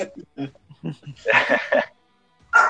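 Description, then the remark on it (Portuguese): A dog barks in a quick run of three sharp barks, then one more after a short pause, following a stretch of someone talking. “tem um visitante aí, um cachorro”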